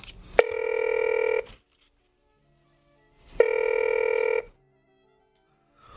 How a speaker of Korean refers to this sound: 아니 몇 번 걸어도 통화 중 신호음만 들리고 받질 않더군.